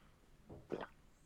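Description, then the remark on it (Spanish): Two quick, wet gulps of someone drinking water, the second louder and fuller than the first, with no talking around them. “Qué bien bebes agua, Iván. Eh, ya, ya, tío. No, no, me ha gustado, me ha gustado, se ha escuchado súper bien.”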